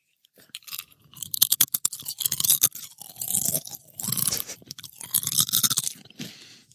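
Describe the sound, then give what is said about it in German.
Loud crunching of potato chips held close to the microphone as an ASMR demonstration, with repeated crisp bites and chewing in irregular bursts for several seconds, no talking. “Das hast du ja, jetzt nur als Ausrede genommen, um Chips zu essen.”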